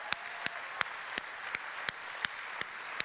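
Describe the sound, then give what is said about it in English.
An audience applauds, with sharp claps landing in a steady, even rhythm roughly three times a second over a continuous wash of crowd noise and cheering. “I'd love to hear a cheer or two in the house this morning.”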